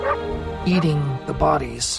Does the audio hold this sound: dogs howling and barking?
yes